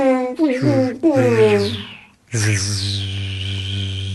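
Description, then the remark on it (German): A voice hums and buzzes in a low droning tone, imitating a lightsaber with short swooshing bursts, then a longer sustained hum after a brief pause. “Du kannst ein Laserschwert nachmachen.”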